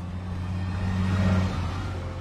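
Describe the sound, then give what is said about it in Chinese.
A bus engine rumbles as it pulls away, a deep steady drone with humming low tones that swell briefly in the middle before settling, with no voices. “车辆起步，请扶稳坐好。”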